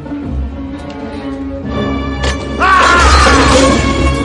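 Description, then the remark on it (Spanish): A large, heavy wooden meeting table is angrily overturned by Carl with a loud crash and thud, followed by a sustained rumbling clatter as it settles, with faint voices underneath. “Mientras, Carl vuelca encolerizado la gran mesa de reuniones.”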